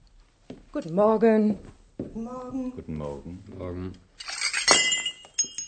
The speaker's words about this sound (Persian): پس جریان از این قرار بود که مقداری ظرف به زمین ریخت و شکست